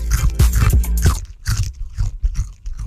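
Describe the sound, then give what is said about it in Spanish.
Crunching on snacks: a rapid series of loud, dry crunches in the first second, then softer, irregular chewing crunches continuing, with no talking. “Hay que alimentarse, pues hay que tener nuestros respectivos snacks para tener la energía que necesitamos para darle con toda la gente que nos está escuchando a nivel nacional, ¿cierto?”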